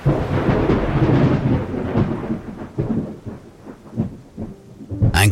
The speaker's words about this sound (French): Alors qu'il a près de 15 ans, lors de vacances à Belle-Rive, près de Genève, un orage d'une violence inouïe lui fait voir de près le phénomène de l'électricité.